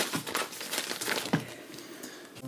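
A paper page is turned, giving a dry crinkling rustle with a few brief crisp snaps, fairly quiet and continuous for a couple of seconds, with no voices.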